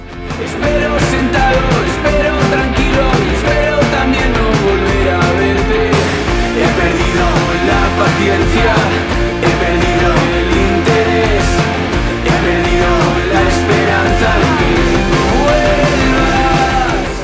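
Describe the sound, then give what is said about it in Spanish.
An indie rock song, a band's latest single, plays loud and steady throughout, with driving drums and dense layered guitars filling the mix, and no talking over it. “Lo que suena es …, es el último single de …”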